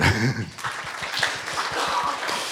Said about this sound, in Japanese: 素晴らしい拍手